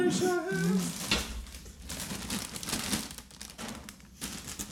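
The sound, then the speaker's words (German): A snack bag crinkles and crackles as it is opened, a steady run of sharp, papery rustles lasting several seconds, with a brief hum of a voice at the very start. “Das wäre doch ein guter Moment, um mal Pommchips auszupacken.”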